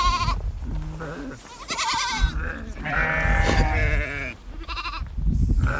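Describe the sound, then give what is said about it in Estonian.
A flock of goats and sheep, large and small, bleat over one another as they run to a watering place to drink at a Bedouin herders' site in the desert. Their wavering cries come thick for several seconds above a steady low rumble of movement. “jõuame Tuule käest kohale ajaks, kus kitsed ja lambad jooma tulevad ja suure jooksuga suured ja väikesed joogipaiga poole kappavad”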